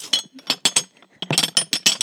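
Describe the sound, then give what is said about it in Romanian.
Glass dildos clink and tap against each other for ASMR, about a dozen bright knocks in quick irregular succession with a brief pause midway, no voices. “Să vorbim suav și să clăncănim din dildouri între ele.”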